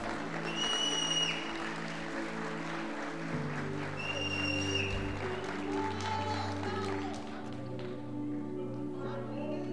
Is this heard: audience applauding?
yes